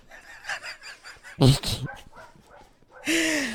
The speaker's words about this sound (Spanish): Había bajado el micrófono porque es que tenemos a los perros cuando grabamos, ellos están aquí en la ventana y dicen, ah, ahora también queremos salir. No sé si se escuchan por el fondo.